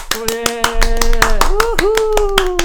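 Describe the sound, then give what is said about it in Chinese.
Steady, rapid hand clapping runs throughout, joined by a loud sustained vocal cry, a scream that wavers and slides upward in pitch partway through before holding on, welcoming the head of the POPO Chinese creative writing awards. “自带那个掌声跟尖叫声。”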